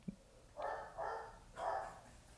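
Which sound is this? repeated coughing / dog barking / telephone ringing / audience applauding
dog barking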